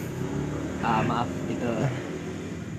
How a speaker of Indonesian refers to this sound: suara motor. Maaf, maaf, ya jadi ini kita lagi di tepi jalan ya. Jadi kalau misalnya ada suara motor, mobil. suara mobil, harap dimaklumi. Contohnya seperti ini nih contohnya.